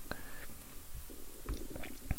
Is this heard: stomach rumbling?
yes